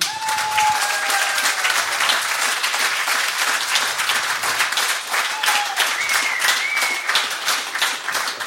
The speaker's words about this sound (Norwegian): Vi kan jo applaus for dette.